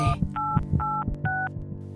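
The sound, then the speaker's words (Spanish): Three distinct telephone keypad tones beep in quick succession as 911 is dialed, each a steady dual-pitched note lasting about a quarter second, over a low background hum. “Sentía cómo su vida se escapaba de las manos, con las pocas fuerzas que le quedaban, se aproximó a su teléfono y logró marcar al 911.”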